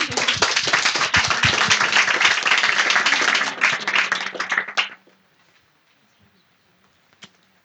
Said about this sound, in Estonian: kui mitte, siis äh, suur aitäh, veel kord suur aplaus ja jõudu.